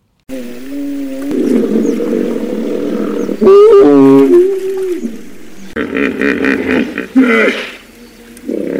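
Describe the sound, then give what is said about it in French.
A grumpy hippopotamus grunts and bellows loudly, a series of deep, drawn-out groaning calls with a brief rising honk in the middle, continuing for several seconds with no talking. “Donc, écoutez un hippopotame grognon, ce que ça donne.”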